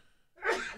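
A single sneeze bursts out after a brief quiet moment, sharp, breathy and fairly loud, with no talking around it.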